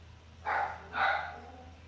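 A dog named Pebbles, an auntie's dog staying at a family home, barks twice in quick succession, two sharp, mid-pitched barks over a low steady hum, with no one talking.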